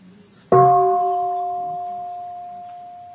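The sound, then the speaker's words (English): A single bell is struck once by a bell master as a half sound, warning that a full bell sound will follow, after a brief quiet moment, its clear, steady tone ringing on and slowly fading. No voices are heard. “And then I invite the bell to emit a half sound, half sound.”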